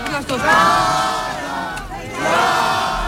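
A loud crowd of colleagues and supporters applauds, cheers and shouts together, chanting her name as she leaves the court building in Barcelona at 11 at night, voices rising in a sustained roar with a chant-like surge near the end, dense throughout.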